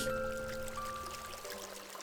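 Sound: flowing river water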